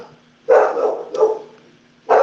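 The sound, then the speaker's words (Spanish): A dog barks three times, loud sharp barks with short gaps between them, the second one longer and trailing off. No one talks. “Tengo mi perrito activo, voy a apagar el micrófono.”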